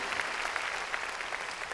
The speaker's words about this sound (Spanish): Démosle palmas fuertes a nuestro Señor. Gloria a Dios. Muy bien.